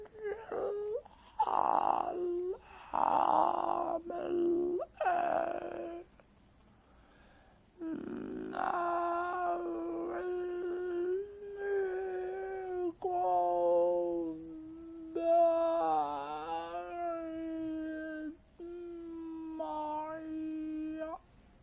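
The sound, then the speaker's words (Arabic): Mechanical buzzing speech from an artificial electrolarynx fitted after larynx cancer, a flat, monotone drone shaping garbled syllables in short bursts for about twenty seconds, fairly loud, with brief pauses between phrases. “قال له انا مصاب بسرطان الحنجره فمركبين لي حنجره صناعيه فالحنجره الصناعيه دي بيطلع منها الكلام عارف لما يبقى تسجيل بايظ او بيسف بتلقط الذبذبات بالظبط وتبدا تطلعها بس ما بيطلعش صوت بشري”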